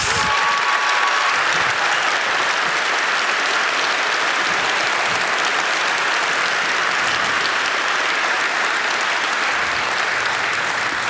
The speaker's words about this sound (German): Und deshalb würde ich mir wünschen, dass wir alle, die wir hier sind, einen großen Applaus Jesus geben.